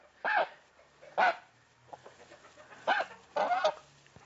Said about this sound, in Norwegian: Nå har denne her sittet og ropt etter, og den har vært alene som gås der inne hele livet sitt. Og liksom trøsta seg litt sammen med disse endene som han har gått sammen med. Men han har drevet og ropt etter de andre gjessene